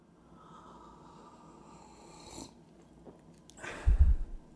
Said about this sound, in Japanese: 静寂の中、ただ、光貞の茶をすする音だけが、この空間に響く。